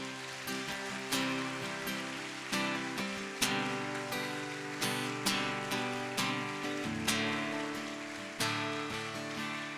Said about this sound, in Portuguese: Se essas palmas são para Jesus, podia ser melhor, não podia?